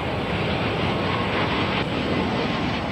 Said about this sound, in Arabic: إنه يونيو عام 1988 وعرض مدينة آبزم الجوي مستمر بمطار مولوز القريب من الحدود الفرنسية مع سويسرا وألمانيا الغربية ينظر آلاف المشاهدين لأعلى حيث تبدأ طائرة A320 بالهبوط